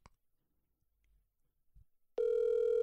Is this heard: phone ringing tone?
yes